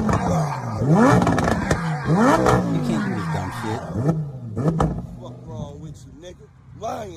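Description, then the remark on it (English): A powerful Lamborghini Gallardo STO sports car engine starts and revs hard several times in a row, its pitch sweeping up and down loudly, with voices talking over it. “So first of all, that's an STO, Gallardo. It's not a, it's not an Aventador.”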